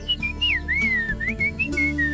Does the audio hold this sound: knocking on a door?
no